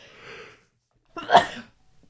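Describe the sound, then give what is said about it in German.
A single loud sneeze with a sharp burst, preceded by a soft indrawn breath about a second earlier, then quiet. “Gesundheit.”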